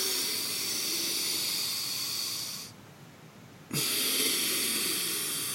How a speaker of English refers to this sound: let us have one uh, nasal breath, please